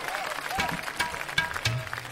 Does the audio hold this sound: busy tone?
no